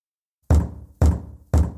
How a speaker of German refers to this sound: Am 9. Oktober klopft es an Bleis Kabinentür.